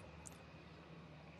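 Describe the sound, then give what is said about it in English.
A train passes, heard as a steady, low rumbling roar with a brief faint high squeal near the start. No one speaks. “that's a train going by, by the way.”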